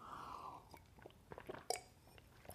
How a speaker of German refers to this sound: Jetzt nehme ich auch mal einen Schluck Wasser. Vor lauter Wasser bin ich jetzt durstig geworden.